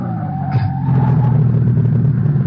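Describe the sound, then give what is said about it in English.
A sedan's engine rumbles loudly while a high tire squeal slides across the first second as the driver slams on the brakes on a bumpy stretch of road in Bavaria, then the rumble carries on steadily as the car brakes to a stop. “I slam on the brakes”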